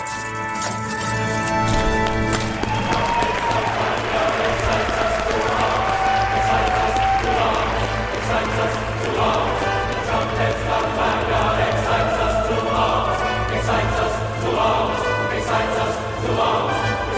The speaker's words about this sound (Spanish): Bueno, vamos para adentro, que se escuche de la sintonía, está todo el mundo dentro. Abrimos las puertas del ático.